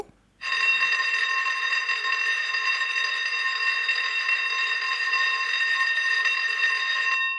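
A loud, buzzy electronic telephone tone with a slight warble starts abruptly and holds steadily for about seven seconds, with nothing else in the background.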